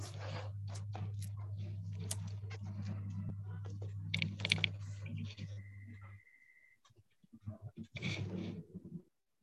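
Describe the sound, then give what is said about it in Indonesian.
Rapid, irregular clicks of typing on a computer keyboard, steady for several seconds over a low hum, then a brief pause before another short burst of keystrokes. “Saya sedang mengetik.”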